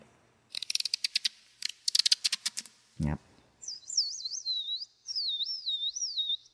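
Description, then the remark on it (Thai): A beatboxer imitates bird chirping: a quick run of sharp mouth clicks and a low thump, then a clear warbling whistle that trills up and down for a few seconds. “แล้วก็มีอะไรอีกอะมีเสียงเรียนแบบธรรมชาติเนาะอย่างเช่นเสียงนกนะครับ”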